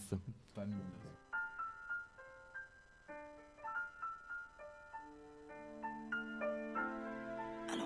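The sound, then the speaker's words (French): A rap track's intro, used as the entrance music when a performer walks on stage in a live show, plays clearly: a bright, plinking melody of repeated short notes over a steady beat, with a low bass line joining partway through. “on écoute le morceau sur lequel tu rentres sur scène dans ton spectacle.”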